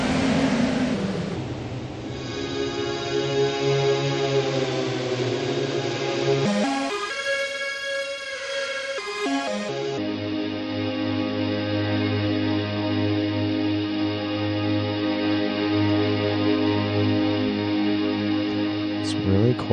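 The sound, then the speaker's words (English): Dense, sustained electronic tones from an effects pedal in reverb mode swell and wash together under a heavy reverb, shifting to a brighter, hollower texture midway before settling back into a loud, continuous drone. No one speaks. “Let's go back to reverb mode.”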